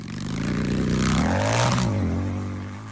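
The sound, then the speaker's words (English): A motorcycle engine revs up loudly, its pitch climbing and then settling into a steady roar, with some rattly mechanical noise layered on top. “A motorcycle is around 100 decibels”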